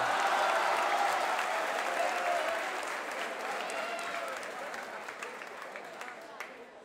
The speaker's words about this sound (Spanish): Un aplauso para el chico que dijo porco araña que quería un poquito de fama. Por favor, un aplauso fuerte.